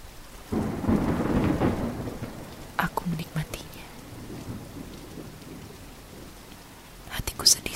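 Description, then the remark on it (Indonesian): Rain falls steadily at the end of June, swelling into a heavy, rumbling downpour near the start before easing to a lighter patter broken by sharp crackles and drips, with a low rumble like thunder. “Rintik dan deras hujan menjadikan bumi penghujung bulan Juni mengeluarkan bau tenang.”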